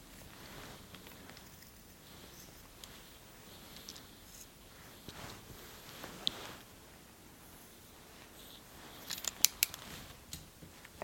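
Quiet snipping of scissors trimming beard hair, a series of soft metallic cuts with a sharper cluster of clicks near the end, over faint rustling and no talking.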